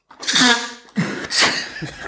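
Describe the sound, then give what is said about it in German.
A loud sneeze bursts out with a sharp breathy onset, followed by a second forceful sneeze-like blast and some breathing noise afterward. “Gesundheit. War da ein Elefant irgendwo?”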